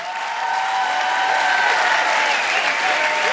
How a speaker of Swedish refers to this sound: Tack till ledningsteamet för Nyhem som gör det här fantastiskt bra. Alltså, förtjänar inte de en applåd eller två?